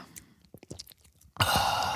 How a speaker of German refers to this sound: Einmal den Kaffee geschlürft. Schön in die offene Zungenwunde.